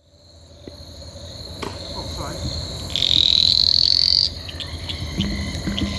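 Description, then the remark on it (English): Litoria fallax tree frogs call at night about half a meter from the microphone: one loud, high buzzing call from a small green male rises for about a second over a steady, shrill chorus of frogs and insects, with softer croaks scattered throughout. “So I'm only uh, about half a meter away from some of these calling Litoria fallax.”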